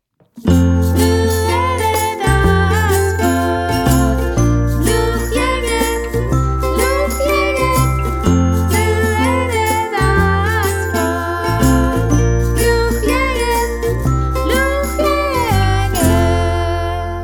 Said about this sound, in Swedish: Uh, men uh, med det sagt, hjärtligt välkomna hit och vi tar en vignett.